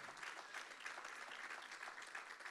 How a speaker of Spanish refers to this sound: Hermano, si usted le va a dar ese aplauso al Señor, déselo fuerte, con convicción.